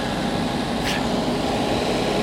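vehicle, tractor engine running

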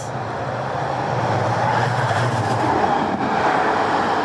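vehicle, tram running on rails

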